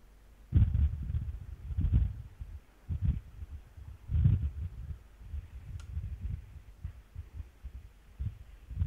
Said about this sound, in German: Sitzen Sie draußen? Ich höre Windgeräusche von Ihnen. Ist das, sind Sie, ist das Wind? Haben Sie Wind im Nacken? Nein. Okay. Dann haben wir eine Störung.